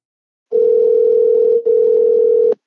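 A telephone dial tone hums steadily and loudly for about two seconds, a single unbroken electronic pitch with one tiny dropout partway through, then it cuts off. No one speaks.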